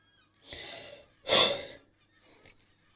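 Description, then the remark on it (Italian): A voice imitates a figure panting heavily as he approaches the remains of a temple, raising clouds of steam: two loud, breathy gasps, the second sharper and stronger, followed by a faint trailing exhale. “si avvicinò a quanto restava del tempio di Kairos ansimando ah, e sollevando nuvole di vapore attorno a sé, nonostante il calore scaturito dal nucleo dorato.”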